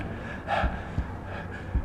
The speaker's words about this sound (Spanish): Yo jadeaba, tratando de recobrar el aliento, y sin embargo los policías no habían oído nada.